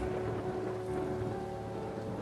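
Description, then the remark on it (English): Steady, heavy rain pours down in a dense, constant hiss, with a low rumble of thunder beneath it, like a thunderstorm raging. No voices are heard. “just as he finished, the wind blew wildly and rain burst from darkened clouds as they moved toward the cottage for shelter.”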